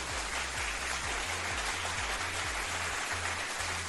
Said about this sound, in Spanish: Ahí tengo los efectos de los aplausos, pues, para qué, ¿verdad?